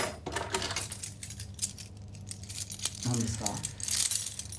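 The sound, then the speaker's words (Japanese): Keys for a shop shutter at a dance studio in Takaido, Japan jingle and clink in scattered metallic rattles, with a brief spoken question partway through. “シャッターの鍵ですシャッターの鍵すごいこんな鍵あんねやみたいな鍵ですシャッターの鍵”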